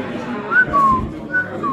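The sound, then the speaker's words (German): A person whistles a few short, clear tones, some rising and some gliding downward, over a soft background murmur. “Mit Pfeiftönen drauf.”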